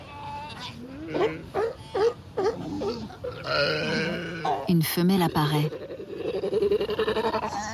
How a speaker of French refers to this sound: Dans ce lieu familier qui leur sert de dortoir, les plus jeunes s'impatientent bruyamment. Leurs cris, ces petits bêlements, sont un appel. Ils attendent leur mère partie pêcher.